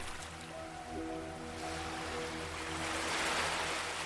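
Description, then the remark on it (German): Soft sea surf washes steadily onto a sandy beach on a coast, swelling a little louder toward the end, with a low sustained musical drone humming underneath and no voices. “Visualisiere nun einen wunderschönen Küstenort wo das Meer sanft an den Sandstrand brandet.”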